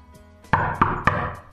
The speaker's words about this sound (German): klopfte es nach einer kurzen Weile an die Tür